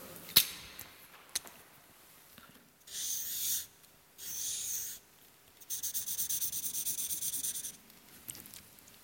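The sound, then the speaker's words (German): Scratchy strokes of a red flipchart marker colouring in a heart on paper: a couple of sharp taps, then bursts of back-and-forth scribbling, the last a fast rhythmic rubbing, with no talking. “Mit dem Herz. Malen wir es ganz aus.”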